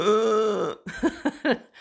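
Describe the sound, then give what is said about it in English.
A voice mimics its own loud, harsh hiccups: a drawn-out strained vocal groan, then three sharp, gulping bursts in quick, uneven succession. “I have the worst hiccups. I'm not one of those little dainty, cute little.”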